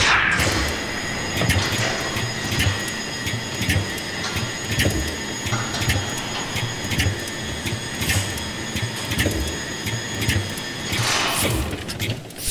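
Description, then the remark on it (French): Printing press machinery in a print shop runs steadily and loudly, a dense mechanical clatter with repeating rhythmic knocks, sharp clicks and a sustained whining hum, with no voices. “je suis revenu d'abord avec un album qui s'est appelé …, qui était composé à partir d'enregistrements dans des imprimeries”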